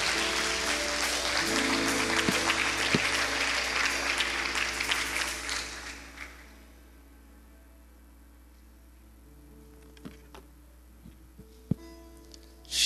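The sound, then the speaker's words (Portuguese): An audience at a church service applauds the Lord Jesus steadily for about six seconds after a prayer, a dense wash of clapping that then fades out, leaving quiet with a few faint knocks and shuffles. “Aplauda o Senhor Jesus.”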